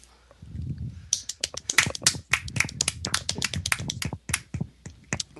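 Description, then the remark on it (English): A few people clap in a brisk, uneven patter of sharp slaps that keeps going for several seconds, with no talking over it. “So, um, everyone, I would like to take a moment to um, applaud.”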